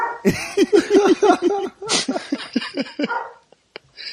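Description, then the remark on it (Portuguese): Dogs bark in a quick, loud string of yaps, pause briefly, then let out another uneven burst of barks before trailing off into near silence with a couple of faint clicks. “conseguiu chamar a atenção dos cachorros”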